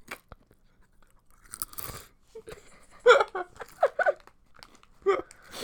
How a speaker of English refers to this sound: is currently opening a bag of Doritos. You're gonna hear him fucking chew.